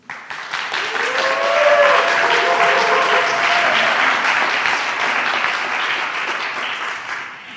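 Sustained applause from a very large live audience at a panel discussion, a dense wash of clapping that swells quickly, holds steady and loud for several seconds, then begins to taper, with a few cheers or whoops mixed in early.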